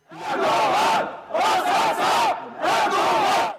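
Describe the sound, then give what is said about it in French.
A crowd of Kurdish protesters in Paris, around rue d'Enghien, chants loudly in unison the name of the man they consider responsible, three forceful rhythmic bursts of shouting separated by brief dips, with voices rising and falling together. “Les manifestants ont commencé à scander le nom de celui qu'ils considèrent comme le commanditaire”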